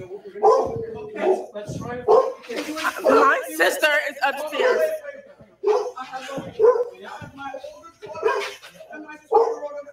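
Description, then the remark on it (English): A dog barks repeatedly in short, loud bursts, mixed with people talking over it, with a few whimpery yips between barks. “I thought that was a police dog, but look, there's a cage That's down here.”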